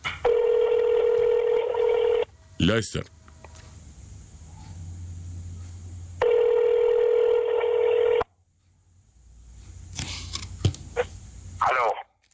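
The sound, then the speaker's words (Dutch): A telephone call to the Suriname Herald newspaper goes through: two long, steady electronic ringing tones separated by a quiet gap, with clicks and line noise on the phone connection in between. “Ik heb toen gebeld met Suriname Herald om een interview af te nemen.”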